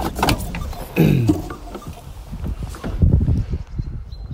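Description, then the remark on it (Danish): Someone climbs out of a car: shuffling movement, a couple of soft thumps and clunks from the door and seat, then quieter rustling and steps as the outside air opens up. “Nu er jeg stødt ud af bilen, og jeg skal lige sikre mig, at jeg ikke har en strus.”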